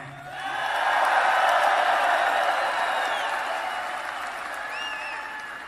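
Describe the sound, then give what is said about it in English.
A large crowd at a political rally breaks into loud, sustained applause with cheering and a few high whistles in response to the slogan "Make America Great Again", swelling quickly and holding steady before easing slightly toward the end. “So, so, so let's take a little applause, right?”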